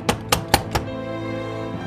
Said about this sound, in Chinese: 突然间，从楼下传来一阵急促的敲门声，再次惊动了他们。